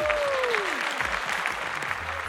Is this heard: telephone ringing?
no